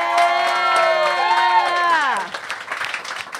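A live audience at the Hot Mess Comedy Hour comedy show whoops and cheers loudly over scattered clapping, the sustained cheer sliding down and dropping away after about two seconds, leaving lighter applause.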